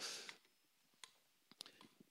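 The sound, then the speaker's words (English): Faint, sharp mechanical clicks of a metronome set to about 80 beats a minute sound a few times against a quiet background, ticking softly, preceded by a short burst of hiss at the start. “So this metronome is set, I think, to 80 beats a minute.”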